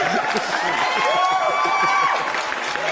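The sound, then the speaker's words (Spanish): Steady applause from a sizable crowd fills all three seconds, loud and continuous, with cheering voices and a few whoops rising above the dense clapping. “Aplausos totalmente en vivo para Free Call con Gorgojo, maldita sea.”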